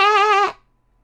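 A single loud sheep bleat, about half a second long with a wavering, quavering tone, followed by silence.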